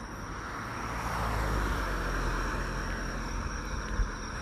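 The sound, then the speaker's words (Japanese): A car passes by, its broad road rumble and tire hiss swelling to a peak and then holding steady. No one speaks. “ああのね、ちょうどね、今、車が来たせいで”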